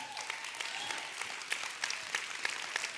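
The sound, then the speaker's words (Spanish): Steady applause from an audience for the ushers, the welcome team and the security team: dense overlapping claps sustained throughout with sharp crisp transients, fairly loud and continuous for a few seconds. “Dale un fuerte aplauso.”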